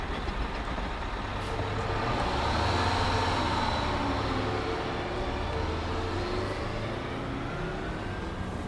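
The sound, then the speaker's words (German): A heavy number 57 city bus rumbles steadily through traffic as the sky darkens before a thunderstorm, its deep engine drone constant, with a hiss of road noise and surrounding vehicles throughout. No one speaks. “Der 57er schließt schon die Türen”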